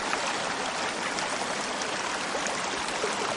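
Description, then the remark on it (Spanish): Water runs steadily through an irrigation ditch crossing a street, a continuous bright rushing and babbling sound with no pauses or voices. “Llegan a una calle atravesada por una acequia.”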